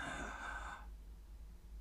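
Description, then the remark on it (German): A single deep breath drawn in by a patient during a doctor's stethoscope examination, an airy rush lasting under a second before it cuts off into quiet hum. “Wie heißt das, wenn sie das Stethoskop nimmt? Aha. Atmen Sie mal ein.”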